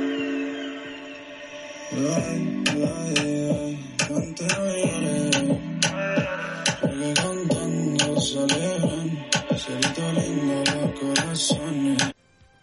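A reggaeton track assembled from layered parts, including vocals, plays with a dembow beat: sharp percussive hits in a steady syncopated rhythm over bass and synth chords, loud and full from about two seconds in, ending abruptly.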